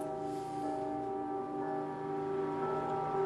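Air raid sirens wail steadily alongside ringing church bells in Ukraine, a dense, sustained wash of tones holding at an even level throughout with no voices.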